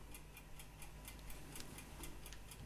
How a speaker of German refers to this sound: Ich denke ich denk äh, sehr, sehr hart nach. Da höre hör ich nur das Ticken im Hintergrund.